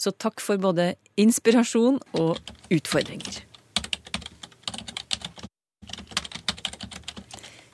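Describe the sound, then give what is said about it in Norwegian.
Rapid clicking of keys on a computer keyboard, steady, following a short stretch of someone speaking; the typing continues in uneven bursts with a brief pause. “Dette er lyden av en internaut en person som er aktiv på internett.”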